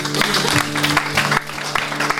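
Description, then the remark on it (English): A church audience applauds steadily after a short sermon, a dense wash of clapping from a crowd, fairly loud and sustained throughout with a low steady hum underneath and no clear talking. “Come on, give him a better cheer than that.”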